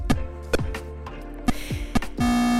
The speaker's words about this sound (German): Ein Strich rechts, einer links, in der Mitte so eine gestrichelte Linie und zwei Zahlen. Und ein kleiner, sich bewegender Punkt. Ansonsten ein schwarzer Bildschirm. Das ist Pong. Und das klingt so.